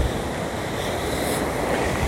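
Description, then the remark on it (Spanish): Steady roar of ocean surf washing onto a beach, a broad continuous rush with wind buffeting the microphone, no distinct individual wave crashes, no voices. “Es el único podcast en el mundo el cual es grabado desde la playa, el océano, ¿entiendes?”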